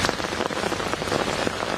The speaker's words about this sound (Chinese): 小伞哪里抵挡得住暴雨？民众徒步涉水，马路一片汪洋